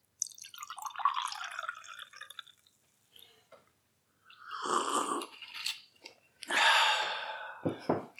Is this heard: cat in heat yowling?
no